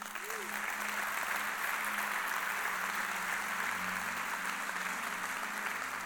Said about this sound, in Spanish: Oh, dale un aplauso a Cristo, aleluya.